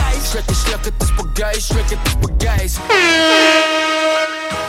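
A new song is started on the player during a radio broadcast: it kicks off with punchy, rhythmic bass-heavy beats, then a loud, sustained brassy synth chord swells in and holds, with no talking over it.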